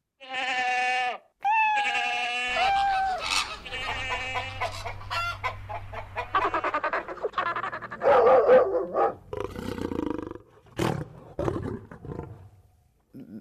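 A lion roaring loud, a series of deep drawn-out roars and rumbling growls in uneven bursts, with no talking over them.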